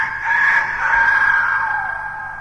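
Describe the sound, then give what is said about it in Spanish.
A rooster crows loudly at dawn, one long sustained call with a strained, nasal tone that holds steady before tapering off. No voices are heard. “Al primer canto del gallo, Cricri continuó su camino hacia la ciudad y recién apuntaban los rayos del sol cuando llegó a ella.”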